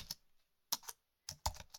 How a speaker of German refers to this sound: Naja, ihr könnt euch das mal so vorstellen, dass ihr einfach euren Browser öffnet und eine Adresse eintippt.